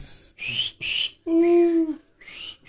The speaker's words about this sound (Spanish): Que estás tocando y es el clásico, ¿no? El, clásico. Y el chiflidito. El chiflidito.